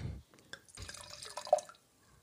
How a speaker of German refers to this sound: So, dann mache ich jetzt mal die Flasche auf und schenke mir einen Schluck ein.